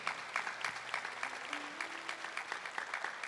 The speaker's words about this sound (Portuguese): Eu gostaria que nós pudéssemos aplaudir mais uma vez a nossa irmã que trouxe um testemunho tão bonito.